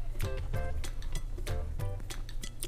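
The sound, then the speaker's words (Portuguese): Crisp crunches of ice from a drink with tonic being chewed, several sharp cracking bites in an uneven rhythm over a low steady hum, with faint glassy clinks mixed in. “Eu tava mastigando, eu tava mastigando um gelo do meu trago de Undenberg com ah.”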